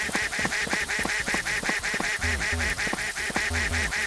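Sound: duck quacking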